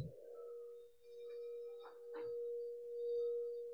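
A singing bowl, made to ring and vibrate during a guided breathing meditation, sounds a steady, sustained tone that hums and shimmers, its vibrating overtones swelling and fading gently, with a couple of soft touches or taps partway through.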